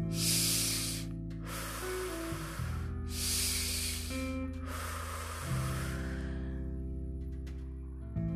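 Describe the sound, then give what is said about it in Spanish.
Four quick, forceful short breaths in a row during a guided breathing exercise, each about a second long with short pauses between, airy and hissing, over a steady low musical drone. “Desde ahora comenzaremos a hacer respiraciones cortas.”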